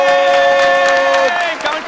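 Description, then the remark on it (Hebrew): Audience applause for a contestant announced with seven points in a game, a brief burst of many hands clapping, with a loud sustained cheering tone held over it for about a second before it breaks off and the clapping continues. “כפיים! כפיים!”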